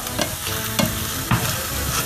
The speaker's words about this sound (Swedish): Här steks smörsorten. Mycket smör.